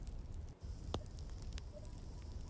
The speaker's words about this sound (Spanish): el fuego se apaga.